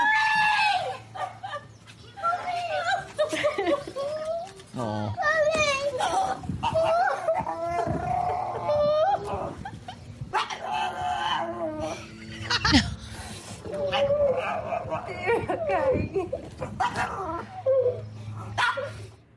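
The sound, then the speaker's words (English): An angry family dog makes strange, strained vocal noises, rising whines and gravelly growl-like sounds that come across oddly creature-like, like a gremlin, continuous, with voices in the background. “It might not sound like a dog, but that's a dog. The dog's mad.”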